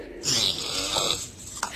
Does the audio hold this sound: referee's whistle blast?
no